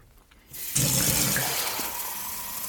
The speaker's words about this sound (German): Oh, ist praktisch, dass der Wasserhahn direkt neben dem Tisch ist.